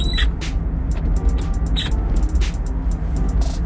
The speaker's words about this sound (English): But if you can still hear me over the uh, car and the wind and everything else like that